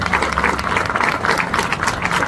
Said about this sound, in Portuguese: Quero mais uma vez pedir uma salva de palmas aos nossos deputados participantes.